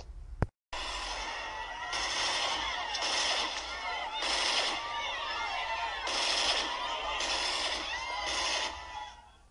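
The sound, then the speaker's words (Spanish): Repeated bursts of loud gunfire, roughly one burst every second, crackling over a dense, noisy background with shrill, warbling tones running underneath throughout. “Tras escuchar el sonido de los balazos, la gente empezó a gritar y a correr por todas partes.”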